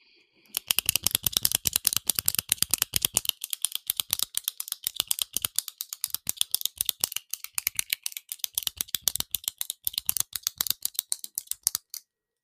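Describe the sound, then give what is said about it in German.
Rapid, crisp clicking from a pen being fiddled with, fairly loud, running in fast irregular bursts for about eleven seconds with no one talking. “Äh, Alter, was ist das denn jetzt schon wieder? Das triggert ja über übelst. Überhaupt nicht übelst. Das ist ein Stift.”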